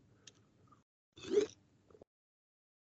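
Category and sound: food or drink, sipping water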